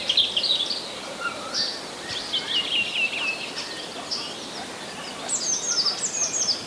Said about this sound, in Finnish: Ja se punakylkirastas.